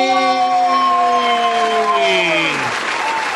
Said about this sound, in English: Did you hear that? You hear that? We just put we put like a crowd crowd sound effect. People losing their minds.